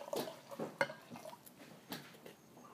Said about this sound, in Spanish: Eh, voy a poner más agua. Ya.